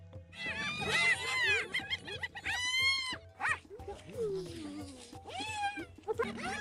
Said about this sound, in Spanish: Uno de los sonidos más particulares de este animal es que hace un sonido muy similar a una carcajada, lo cual es gracioso viniendo de un animal muy agresivo.